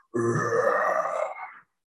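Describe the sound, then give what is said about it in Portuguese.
A single loud, guttural undead groan, raspy and drawn out for about a second and a half, coming out of the middle of a forest, trailing off abruptly at the end. “Opa, Assim, saindo do meio da floresta, um barulho de mortos-vivos.”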